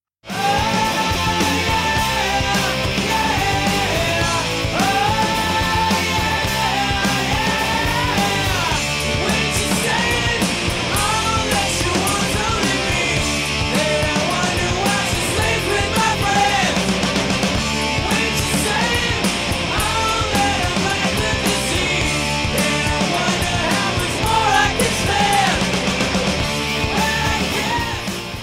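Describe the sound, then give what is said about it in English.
A loud, driving 1990s punk rock song plays throughout, with dense distorted guitars, pounding drums and raw, yelled vocals at a constant high intensity. “I actually love this song. This is by …, ladies and gentlemen, and it is called ….”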